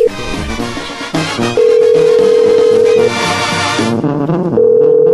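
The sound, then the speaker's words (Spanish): A call is redialed on air at Radio Poder: after a brief stretch of dialing, the telephone ringing tone sounds as two long, steady, mid-pitched pulses with a gap between them, heard over busy background music. “A ver, vamos a marcar de nuevo. Creo que no entró la llamada.”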